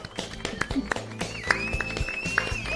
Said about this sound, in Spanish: Hay un aplauso.